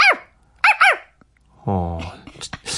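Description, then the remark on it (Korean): A person mimics a dog, giving three short, high yelping barks in quick succession, then a drawn-out whiny vocalization followed by a few breathy, squeaky sounds, all fairly loud. “…님 강아지 연기 메소드네”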